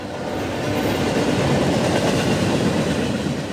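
A slow freight train rolls past on rails through a valley in California, a steady, loud rumble of wheels on rails with a faint rhythmic clatter running throughout, no voices.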